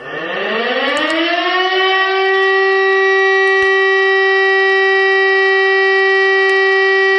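A civil defense warning siren winds up from a low growl to a loud, steady high tone within two seconds, then holds that sustained wail without a break, a warning signal that wails continuously for about three minutes. No voices are heard.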